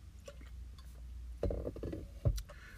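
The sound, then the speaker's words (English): Someone sips water: a soft bump as the glass is lifted, a few quiet wet gulps, then a louder knock near the end over low hum. “Let me take a sip of water real quick.”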